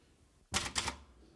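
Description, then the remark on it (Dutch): Two sharp typewriter strikes land in quick succession, loud and clattering, with only a faint hum around them and no one speaking; the typist always types everything in capital letters. “Je tikt altijd alles met hoofdletters, hè?”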